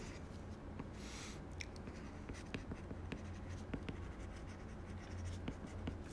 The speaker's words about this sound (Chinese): 嗯，我先说吧，他在那儿写字儿贼磨叽，他说话就啰嗦，然后写字也很磨叽